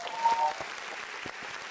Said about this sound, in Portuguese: Uma salva de palmas.